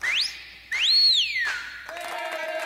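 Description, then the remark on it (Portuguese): A woman whistles two clear sliding notes on a radio show in Paraíba, the first short and rising, the second longer, swooping up and then gliding down, followed by a brief busier stretch of sound. “Olha o assobiozinho dela.”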